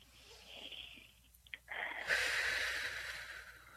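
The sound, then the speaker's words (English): A long, deep inhalation, starting softly, pausing briefly, then drawing in a louder, breathy rush of air that swells and holds for a couple of seconds. “Okay, take a deep breath in”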